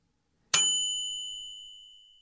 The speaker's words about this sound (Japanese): 話し終わるところで、チンという音を鳴らし、エレベーターが到着した。